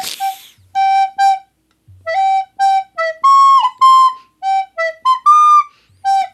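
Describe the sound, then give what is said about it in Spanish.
A simple tune played on a flute or whistled, about a dozen clear notes in quick phrases with a few longer held tones, fairly loud, with no talking. “No, lo puedes hacer ni con la flauta ni con la boca”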